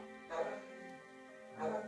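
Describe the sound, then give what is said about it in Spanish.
A dog vocalizes in the background, a drawn-out, tonal sound that swells louder twice, near the start and again at the end, with no talking over it. “Y escuchan a mi perro de fondo.”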